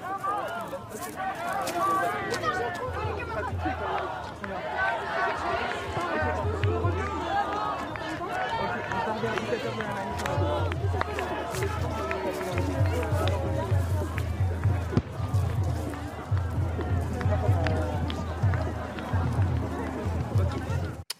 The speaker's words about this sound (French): Euh, les journalistes qui étaient présents sur les lieux ont volontairement se sont mis un peu plus loin pour euh, éviter les, tensions, mais vous avez pu entendre, tout le monde déteste la police.